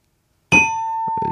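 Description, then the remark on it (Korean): A bright, bell-like ding-dong-dang chime, given to quiz answers, strikes suddenly and rings on with a clear, sustained tone, fairly loud, while a few soft muffled knocks sound beneath it near the end. “자, 오답으로 딩동댕 받으신 분들이에요.”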